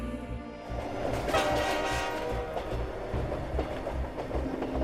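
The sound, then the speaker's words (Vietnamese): A train with dim headlights roars steadily along the rails through fog, a dense rumbling rush with rhythmic low thumps and a metallic hum, loud throughout with no talking. “Từ phía bắc xa xôi, Đoàn tàu đang lao vút xuyên qua màn sương mù với những chiếc đèn pha mờ ảo, nhìn giống hệt quần trăng.”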